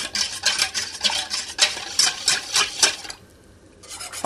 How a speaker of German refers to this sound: Fängt langsam an zu kochen. Wir rühren das dann ein. Ich tue das auch immer schon mal vorher, wenn das nicht ganz kocht.